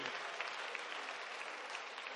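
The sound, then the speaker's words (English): A church audience at St. Matthews applauds with steady, dense hand clapping, many overlapping claps forming a continuous bright wash of sound at an even level, with no voices standing out. “Let's give the Lord a hand clap for her.”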